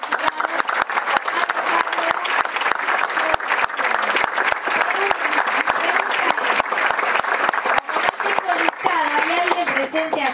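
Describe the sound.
Sustained audience applause, a dense, steady wash of many hands clapping for about ten seconds, with some voices faintly audible underneath toward the end.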